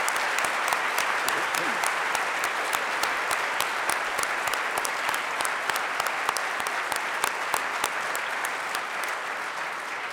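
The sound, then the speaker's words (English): Sustained audience applause for the presenters at a community gathering in Goshen fills the full ten seconds, a dense steady patter of many hands clapping at once, loud and continuous without a break, tapering only slightly toward the end. “Can we just have another round of applause for all of our presenters and for Leonard's words today?”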